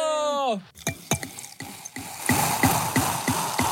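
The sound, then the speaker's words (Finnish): A bottle of alcoholic, not alcohol-free, sparkling wine being opened: a short vocal exclamation, then a series of sharp regular clicks, followed by a rising, steady fizzing hiss as the wine foams. “Ai, ai, ai, ai, ai, nyt kuohuu. Ja voin sanoa, että ei ole alko- alkoholitonta.”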